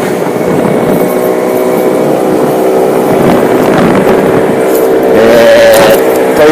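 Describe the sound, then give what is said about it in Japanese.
Wind blasts into the microphone in a loud, continuous roar that buffets throughout, with a low droning hum running beneath it and no voices. “風の音は大丈夫でしょうか、えー、風の音をうんまけながらお送りしております何も聞こえねえかな”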